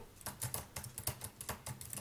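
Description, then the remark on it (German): Soft, quiet clicking of fingers typing on a low-profile chiclet-style Mac keyboard, with rapid, slightly irregular keystrokes in short bursts and no voices. “Das so eine typische Mac. Die Schickle-Tasten oder Kaugummi-Tasten, wie man sie auch nennt.”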